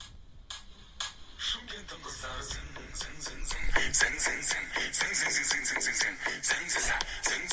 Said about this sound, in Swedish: Jag vill bara sammanfatta de här tre veckorna med en låt. Aha. Som har gått på repeat. Hos mig.